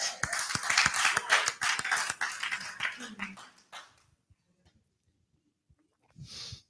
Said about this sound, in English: Come on, clap your hands.